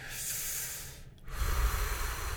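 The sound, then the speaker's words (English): A long, deep breath drawn in, a steady airy hiss that pauses briefly, then continues with a fuller, rougher rush of air. No one speaks. “But that deep breath, you know, breathing it in”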